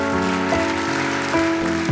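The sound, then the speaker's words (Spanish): An audience applauding, a dense, steady wash of clapping that fills the whole two seconds, with sustained musical tones, like a keyboard, holding underneath. No one speaks. “Dele un aplauso, por favor, y póngase de pie.”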